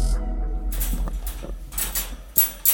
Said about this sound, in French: Ensuite, la dominatrice ouvre une grande cage pour gros chiens.